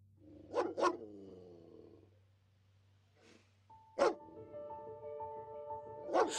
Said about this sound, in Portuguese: Os cães ainda latiam violentamente do lado de fora, tentando nos encontrar